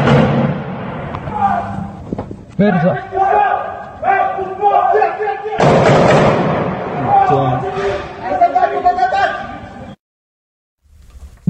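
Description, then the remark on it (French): Many sharp gunshot bangs in Strasbourg ring out at irregular intervals amid loud, agitated crowd voices and shouting, the chaotic din continuing before cutting to brief silence near the end. “Évidemment, on ne peut pas vous présenter les images, mais vous faire entendre un extrait de ces nombreux coups de feu entendus à Strasbourg il y a à peu près une heure.”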